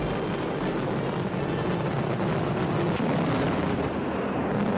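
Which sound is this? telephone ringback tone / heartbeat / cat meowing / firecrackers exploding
firecrackers exploding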